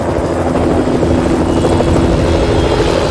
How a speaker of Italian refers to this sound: Anche oggi c'è l'elicotterino che ci sorvola.